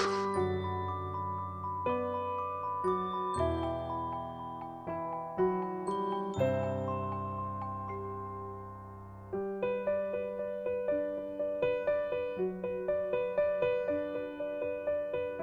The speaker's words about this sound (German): Kann er mal die Musik ausmachen? Hey, Musik aus! Scheißzeug hier.